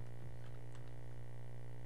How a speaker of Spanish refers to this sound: creo que tenemos una, interferencia ahí en, en el sonido